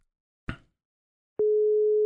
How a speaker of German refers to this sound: Ah, da ist er. Das Freizeichen ist da.